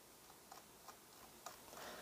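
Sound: watch ticking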